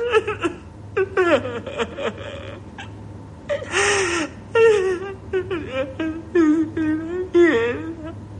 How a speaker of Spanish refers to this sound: continúa llorando desconsolado con la cara escondida entre las sábanas y las manos sobre su cabeza.